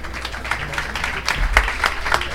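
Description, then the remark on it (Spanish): A live audience at the Munson casino applauds the drummer during a México Radio broadcast, many hands clapping steadily in a dense, crackling wash with a few sharper claps standing out, plus a low rumble underneath and no clear voices. “Un aplauso grande para el maestro Jorge González en la batería, por favor.”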